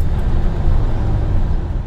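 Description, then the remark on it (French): Steady low rumble of road noise from inside a moving taxi heading from Paris to the airport, a constant engine and tyre drone filling the cabin without pauses or voices. “Et monter dans un taxi, là, je fais tout l'inverse”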